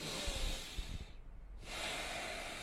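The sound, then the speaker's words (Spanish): A deep, airy belly breath drawn in through the nose, then a brief pause before a long breathy exhale. No one speaks. “Entonces, respirando desde el vientre”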